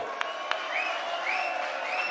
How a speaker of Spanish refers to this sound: Un aplauso bien fuerte para ti